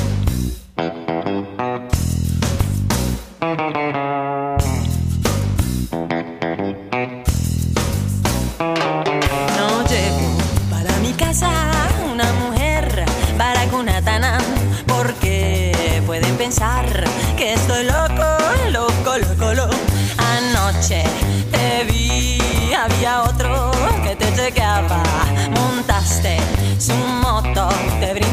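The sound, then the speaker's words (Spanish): A loud Colombian rock song from 1996 played on the radio, with distorted guitars and a sung Spanish vocal, opening with choppy, stop-start bursts before the full band kicks in and drives on steadily. “vamos a escuchar el tema …”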